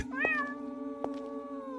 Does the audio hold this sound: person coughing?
no